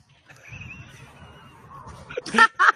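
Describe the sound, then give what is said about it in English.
A person hoots like an owl, two short, loud, honking calls near the end, following a stretch of quiet background murmur. “That you sound like an owl.”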